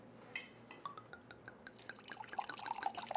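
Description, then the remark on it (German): Wine pours into a glass, a steady gurgling splash whose bubbling pitch rises as the glass fills, with no voices. “stand dann auf und entkorkte eine neue Flasche Wein.”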